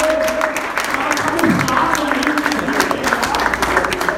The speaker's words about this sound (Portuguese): Uma salva de palmas